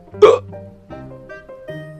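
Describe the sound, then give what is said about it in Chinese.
A voice imitates a zebra hiccuping nonstop: one sharp, loud gulping hiccup, then three softer, voiced hiccup sounds spaced roughly evenly, with no words spoken. “有一天，斑马不停的打嗝。”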